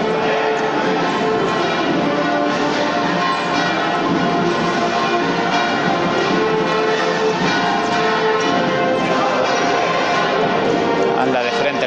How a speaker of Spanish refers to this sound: Y se nos cuelan también ahora pues esas campanas que marcan que son las 11 menos cuarto y que van llevando a misa de 11.